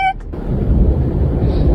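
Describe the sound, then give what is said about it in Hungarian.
A brief high tone cuts off into a loud, deep, rolling roar as a Russian plane carrying Ukrainian prisoners of war crashes into the ground in the distance, with heavy rumbling that continues steadily to the end. “ezen a felvételen csak hallható, a képeken a távolban látható az ukrán hadifoglyokat szállító orosz repülő földbe csapódása.”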